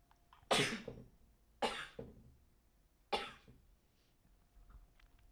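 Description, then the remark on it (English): Three sharp, explosive sneezes from a person with a cold, each one loud and quickly fading, spaced about a second apart with quiet in between and no talking. “That sneeze was a long time coming.”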